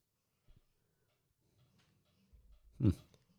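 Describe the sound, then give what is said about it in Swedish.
Hedda, a dog sleeping on the ground, makes soft, low grumbling noises, then a short whimpering yelp as it dreams. The sounds are quiet, with a faint click just before, and no one talking. “Om ni hör någonting konstigt nu i bakgrunden, det är för att Hedda sover här på marken.”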